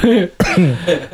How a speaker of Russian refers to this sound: Я подавился. Извиняюсь.